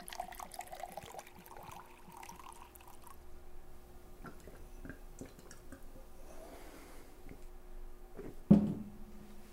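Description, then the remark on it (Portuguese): Water from a minibar in a radio studio is poured into a glass, with soft drips and small liquid splashes building up, then a brief louder gush and clink near the end. No one speaks; a faint steady hum sits underneath. “Antes do próximo tópico, vamos fazer uma pausa rápida só para eu tomar um, um copo d'água?”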